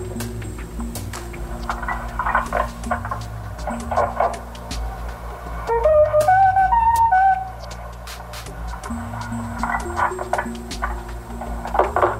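A brief stepped electronic melody of a few tones plays midway through a 1981 phone call to a family home, recorded by police, thin and narrow like sound over a phone line, amid steady low hum and scattered background noise.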